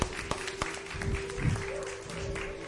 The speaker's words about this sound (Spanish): Bueno, pues un aplauso.